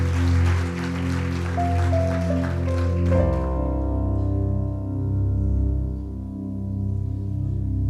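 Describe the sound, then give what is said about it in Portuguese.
A church audience, standing, claps steadily for the Lord, a dense wash of applause over sustained keyboard chords, fading out after about three seconds and leaving only the held, droning music. “Aplaude o Senhor mesmo.”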